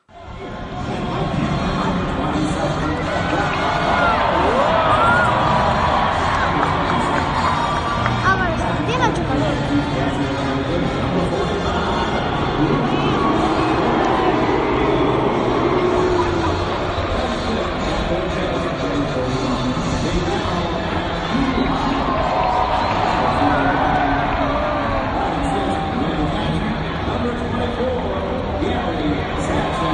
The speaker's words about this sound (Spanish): Nos vamos al Yankee Stadium, nos envía nuestro colaborador Ángel Carrillo, Sonidos del Bronx.